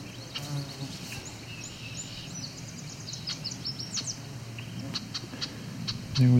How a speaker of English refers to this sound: We've got an annoyed female red-winged blackbird calling here.